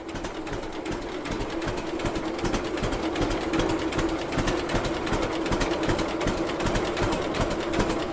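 A vintage two-cylinder John Deere model G tractor idles slowly, its steady, loping chug ticking along in an even rhythm with a low hum underneath, both cylinders audible as it runs slowly. No one speaks.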